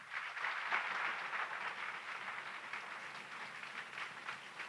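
An audience claps together in steady, dense applause for the light of Christ that holds at an even level for several seconds, with no voices standing out above the clapping.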